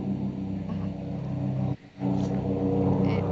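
An airplane passing overhead near a house: a steady, loud low engine drone with a humming, tonal roar that drops out briefly and then returns at full strength.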